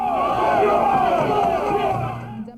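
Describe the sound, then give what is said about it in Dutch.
A crowd of Republican protesters shouts and chants together at the Miami-Dade County election headquarters on 22 November 2000, after the recount was moved to a 19th-floor tabulation room, in the Brooks Brothers Riot: a dense, continuous roar of many overlapping voices, loud and steady throughout before trailing off at the very end. “Op 22 november 2000 roepen en scanderen ze aan het telbureau.”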